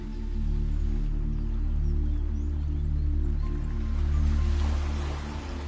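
Ocean waves roll in a steady, deep wash, swelling gently in volume, with a constant low droning hum underneath. No one speaks.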